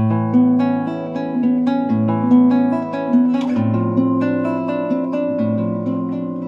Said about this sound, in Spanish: Están los novena mayor que son como una alegría ya como wow, Dios, la naturaleza, el universo, que suenan así.